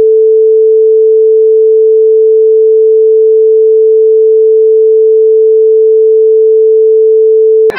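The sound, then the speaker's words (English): A loud, steady censor bleep: one unbroken pure tone held for nearly eight seconds, then cut off abruptly with a brief click at the very end. “hey, hey, bleep that out.”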